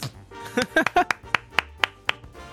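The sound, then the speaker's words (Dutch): A short burst of applause for the technical crew: a voice or laugh at the start, then five or six crisp, evenly spaced hand claps that ring out sharply and stop. “applaus voor de techniek.”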